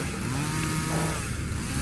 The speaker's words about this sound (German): Lass meine kreischenden Kettenschwerter und die Kettenaxt ihr Part des Imperators vollbringen.